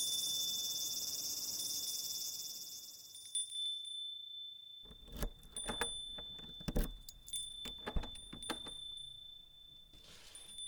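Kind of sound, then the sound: household object, wind chime ringing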